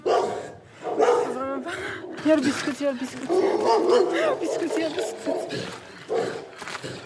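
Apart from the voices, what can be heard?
dogs barking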